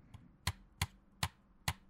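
Four sharp clicks of cheap-feeling plastic controller triggers at a steady, roughly half-second rhythm, crisp, with a fainter click just before them and no talking.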